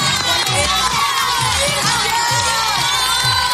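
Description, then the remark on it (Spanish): During the Sunday night edition of a COPE radio programme, a crowd cheers and shouts loudly and steadily, with high excited voices layered over a dense wash of clapping and a repeating low thumping beat underneath. “Aplausos, aplausos, aplausos, aplausos, aplausos.”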